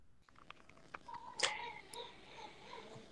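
A cat meows once or twice, fairly faint and somewhat distant, with a quiet room background and no talking.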